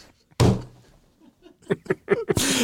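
A single sharp, loud slap of a hand on a tabletop rings out, followed by a few short voiced bursts and a closing rush of noise.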